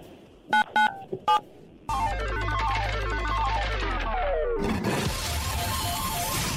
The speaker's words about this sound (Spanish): Eso, oye, entonces presiona en tu teléfono el 977, córrele.